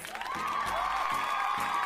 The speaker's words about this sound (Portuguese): Palmas!